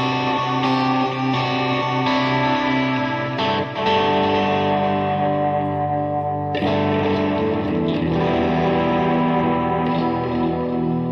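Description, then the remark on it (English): An electric guitar rings out through effects, sustained distorted chords with a shimmering chorus-like wash, steady and loud throughout, with a brief dip before a fresh strum and another change midway. No one speaks. “I actually should have changed the strings on this guitar.”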